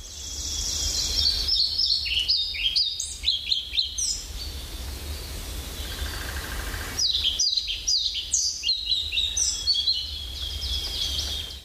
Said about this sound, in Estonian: ja olgu siis nüüd ka ära markeeritud, milline helind musta kärbsenäpi ära andis